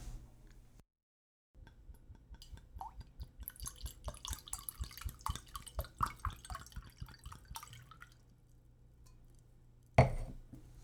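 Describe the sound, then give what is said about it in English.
Malbec wine is poured into a glass, a steady run of quick gurgling glugs lasting several seconds, followed by a single sharp clink near the end. “Would you join me in a glass of wine? I got a nice Malbec open.”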